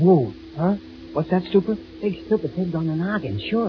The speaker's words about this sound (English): That's the sound of an outboard motor. Right. One of those motors you, you attach to a rowboat.